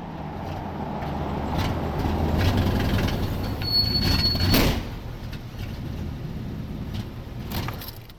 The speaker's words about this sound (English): At least I get to cruise around in my new friend's old car, a very loud Buick station wagon, half a century old.